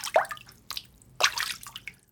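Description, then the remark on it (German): Water drips and splashes into a leaking boat through a hole in its hull on the open sea, a few irregular plops and trickles, with a brief gurgling splash in the middle and no voices. “Wir laufen zwar voll Wasser, aber abgesehen davon, wie das klingt, ist das echt ein Unterschied.”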